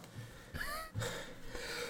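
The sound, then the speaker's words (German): Someone sneezes, or nearly does, with sharp breathy nasal bursts and quick gasping inhales repeating over about two seconds. The bursts are moderately loud, and nobody speaks. “am Niesen.”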